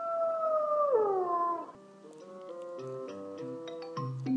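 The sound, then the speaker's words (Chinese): A single long howl from a big grey wolf holds a steady pitch, then slides downward and fades, followed by light, ticking musical notes stepping through a short tune. “在三只小猪住的山后面，住着一只大灰狼。”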